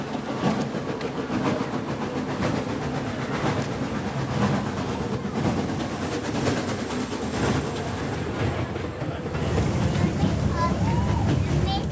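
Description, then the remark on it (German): Steady rumble and rattling of a moving train carriage on a line in Sweden, with irregular clacks from the wheels and faint, indistinct voices underneath as a conductor checks tickets; the noise swells slightly louder near the end. “geht durch den Zug und kontrolliert die Fahrkarten.”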